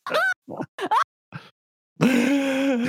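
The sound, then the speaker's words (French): A few short vocal bursts and grunts, then a loud, strained scream of excitement bursts out and is abruptly cut off after about a second. “on a juste entendu la, oh. première fraction de seconde d'un cri genre”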